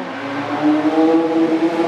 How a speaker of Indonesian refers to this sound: Lamborghini ngeri tuh Lamborghini itu, lewat. itu antara Lamborghini atau angkot iya iya, iya.